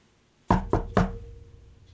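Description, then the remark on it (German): Three quick, evenly spaced knocks on a door, fairly soft, each with a short wooden ring that fades into quiet afterward. No one speaks. “Jesus steht vor der Tür und klopft.”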